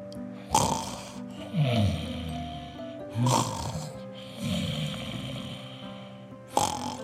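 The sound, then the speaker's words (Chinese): Loud, rumbling snores from QQ Pig, a pig sleeping soundly in its room with its belly button showing, repeat in a slow rhythm, each a raspy low-pitched rattle followed by a breathy exhale, with no talking in between. “在房间呼呼大睡的 QQ 猪，它的棉被呢滑落在床角，QQ 猪露出了肚脐，发出了大大的打呼声哦。”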